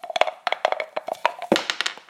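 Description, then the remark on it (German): Dice rattling in a dice cup, a rapid, uneven run of sharp clacking clicks that continues for about two seconds at a moderate level, with no talking over it. “Dann müssen wir jetzt eigentlich noch mal würfeln, äh, wer in der nächsten Folge ja.”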